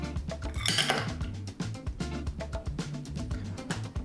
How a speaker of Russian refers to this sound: Убираем лед из бокала.